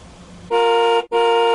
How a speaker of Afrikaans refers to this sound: Ah, ah, wat was dit? dit was die taxi se toeter. Ag nee man, siek, dit het my laat skrik. Dit was baie hard.